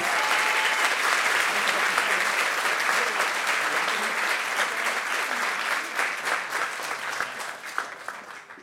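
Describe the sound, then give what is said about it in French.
Sustained audience applause, a dense wash of many hands clapping steadily for several seconds before gradually thinning out, with a few scattered claps toward the end, welcoming a speaker's brother at a gathering called by the Truth and Justice committee for Adama Traoré. “Voilà son frère, que vous pouvez applaudir.”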